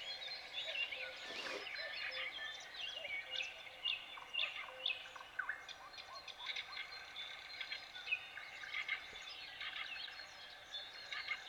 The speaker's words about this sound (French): C'est une forêt, quoi. c'est une zone végétale et il y a beaucoup d'oiseaux.